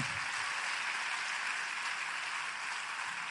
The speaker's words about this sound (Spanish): Dale el mejor aplauso que le hayas dado al Señor. Vamos, que se oiga en el cielo.